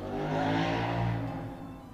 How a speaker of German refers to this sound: des Motorradfahrers, der gerade so laut vorm Fenster vorbeigefahren ist